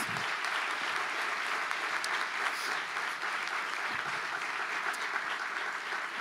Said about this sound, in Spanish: Yo quiero que todos demos un fuerte aplauso para la gloria de Dios.